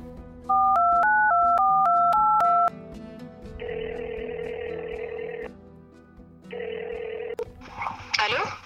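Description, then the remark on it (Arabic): A telephone call is dialed to a guest in the city of Sabha in southern Libya: a quick run of paired electronic dialing tones beeps in a rapid rhythm, followed by two long buzzing ringback tones with a pause between them, over a low music bed. “هات نطلبوها ونكتشفوا كيفاش تقضي يومها في مدينة سبها”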